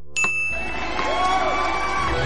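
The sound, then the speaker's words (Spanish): A single bright ding from a small bell rings out clearly, its clear tone lingering and slowly fading while a steady wash of background noise, like a crowd, rises beneath it. “Al oír la campanilla, serás una actriz recogiendo el premio a toda tu carrera.”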